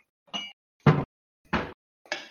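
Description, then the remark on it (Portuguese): Four separate bright clinks, evenly spaced about half a second apart, as ice and two small forks knock against a glass for juice, with silence between each strike and no voices. “O suco que tem não tá gelado. Vai no gelo, então.”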